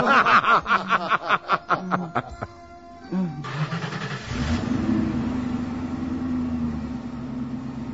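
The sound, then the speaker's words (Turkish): Snickering laughter comes first, then a car engine starts up, revs and accelerates into a steady, loud engine drone that carries on as the car pulls away, driven off at night in the Belgrad forests by men who took the owner's car and money. “Beni Belgrad ormanlarının ıssızlığında, gecenin karanlığında bir ağaca bağlayarak gitti adamlar. Bütün paramı ve arabamı da alarak üstelik.”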